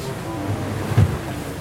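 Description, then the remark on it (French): Steady rushing water and low engine-like rumble from a boat under way, with one heavier splash of sea spray thudding against the boat's red hull about midway through. “Je regarde les embruns euh, s'écraser sur le rouge du bateau.”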